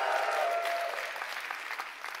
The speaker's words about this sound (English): Can I hear you cheer for a minute? Can I just hear that shout?